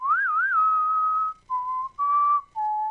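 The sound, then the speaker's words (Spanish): A person whistles a spaghetti western tune: a warbling opening note that settles into a long held tone, then three shorter notes stepping up and down, clear with no talking. “y ahí había estamos Sí, sí, y ahí había mucha mucha canción con silbido ese.”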